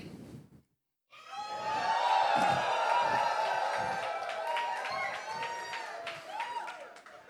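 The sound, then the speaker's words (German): An audience asked to rejoice bursts into loud, sustained shouting and cheering after a brief pause, a dense roar of many overlapping yells with scattered claps that holds steady for several seconds. “Es war eher Schreien, aber es war gut, ja, es war okay.”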